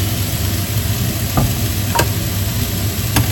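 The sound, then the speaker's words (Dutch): Steady sizzling from a hot pan with a utensil stirring and scraping gochujang paste into it, a few sharp clacks standing out against the continuous frying hiss. No one speaks. “Ik doe een beetje gochujang pasta erbij.”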